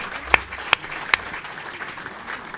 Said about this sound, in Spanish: Yo creo que esto, necesita ya un aplauso de primeras, porque que quede bien claro.